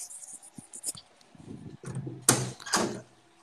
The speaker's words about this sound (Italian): Perché ho sentito tu che usavi le chiavi ho detto qua mi sta buttando fuori, mi sta chiudendo fuori.